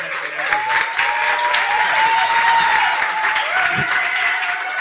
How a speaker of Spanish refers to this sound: Fuerte aplauso para las amichas, cantautoras.